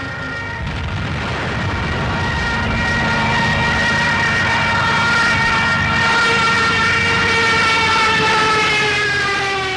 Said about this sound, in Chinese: 后来，这种尖啸声也拿来当作空袭警报使用。好让一般大众感到心里不安，联动身体，做出想要逃跑的反应。